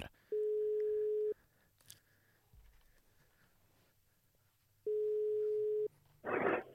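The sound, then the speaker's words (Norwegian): Two long, steady telephone ringback tones, each about a second, separated by a few seconds of quiet line hiss, heard clearly as on an outgoing call to Egon in Ålesund; a brief noisy burst follows at the end. “Da ringer vi Egon eh, i Ålesund, da”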